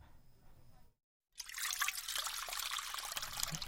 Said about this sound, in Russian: Согласен? Давай-ка еще тебе налью